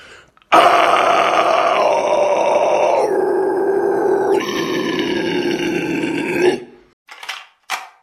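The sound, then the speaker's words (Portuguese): A loud, raspy scream done for the Desafio do Berro (scream challenge) video, held for about six seconds, its pitch dropping in a few distinct steps before it cuts off, followed by a couple of short breathy gasps. “Que é o, o Desafio do Berro.”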